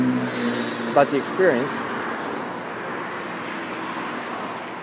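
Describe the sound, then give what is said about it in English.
Steady road traffic rumbles throughout, a broad wash of passing cars heard while a man crosses a road on a viaduct, speaking briefly near the start over the noise. “I'm crossing a road here. That's the sound you hear of the cars.”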